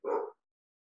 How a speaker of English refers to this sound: even my dog agrees if you heard him in the background.